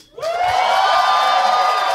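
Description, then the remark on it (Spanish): A loud burst of live-audience cheering and whooping from a full house at the Caja Popular in Querétaro erupts after a brief pause and holds steady, with high sustained shouts riding over a dense wash of audience noise. “y hoy en la silla embrujada, un aplauso muy grande, por favor, ¡Uh!”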